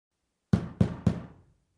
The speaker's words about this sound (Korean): 노크 소리가 다시 들린다. 나는 망설였다. 이제 겨우 오전 7시였다.